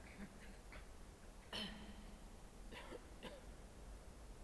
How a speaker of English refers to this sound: So you might like to do a little cough.